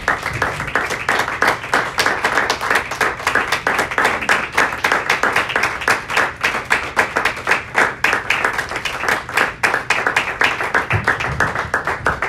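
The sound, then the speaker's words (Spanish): An audience claps together for the Lord Jesus in a steady, rhythmic applause, loud and sustained for several seconds with dense, overlapping hand claps and no talking. “Le vamos a dar un aplauso más al Señor Jesús, hermanos.”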